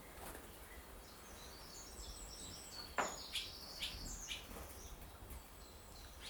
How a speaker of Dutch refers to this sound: Komt er nu eentje binnen? Komt er nog eentje binnen? Het is zo leuk, want de vogels eh, vliegen raaklings over je hoofd langs. De hut in en uit op zoek naar eten. En weer terug te gaan naar hun nest om die nog mooier en beter en steviger te maken.